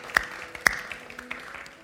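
Light, scattered audience applause for God: a few sharp claps stand out early, over a thin, steady patter of softer clapping. No one speaks.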